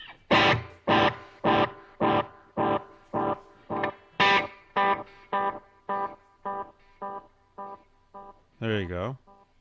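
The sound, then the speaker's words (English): Electric guitar through a carbon copy delay pedal on a pedalboard, playing a steady rhythmic pattern of slightly gritty chords with echoing repeats, ending on a wavering, bent note. No one speaks. “Here's uh, here's the carbon copy right here.”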